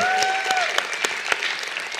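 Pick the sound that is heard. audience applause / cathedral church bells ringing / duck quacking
audience applause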